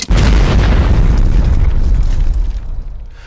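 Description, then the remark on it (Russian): A single loud explosion with a sharp onset and heavy low-end boom, followed by a rumbling roar that slowly fades over about three seconds, representing the explosion that destroyed Alfred Nobel's Stockholm laboratory during nitroglycerin experiments on 3 September 1864. “Взрыв сметает с лица Земли стокгольмскую лабораторию Альфреда Нобеля, где он вместе с отцом проводил свои опыты с нитроглицерином.”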